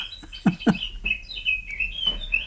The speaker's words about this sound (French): C'est quoi qu'on entend Ça, c'est parce que c'est l'heure. Ah, excuse-moi. C'est un oiseau C'est une montre parlante oiseau.